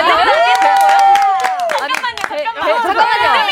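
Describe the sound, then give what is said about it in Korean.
Steady hand clapping in a loose rhythm, cheering on a performer doing a talent act, mixed beneath several voices singing and talking together, lively and fairly loud throughout. “박수 쳐주셔야 돼요.”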